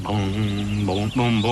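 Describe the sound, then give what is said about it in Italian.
A voice imitates music with the mouth, humming the melody of a song the speaker is still writing on a sustained, repeated "bom" syllable at steady pitches, fairly loud, with a brief break before the last notes. “è la musica, la faccio con la bocca adesso.”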